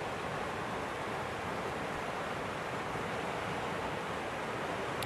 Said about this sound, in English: I'm showing the river cuz cuz this is this is the fucking emotional body, guys.